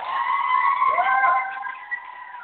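A group of school children cheers for a teacher in one long, sustained high-pitched shout that tapers off toward the end. The cheer is fairly loud, and no separate clapping stands out.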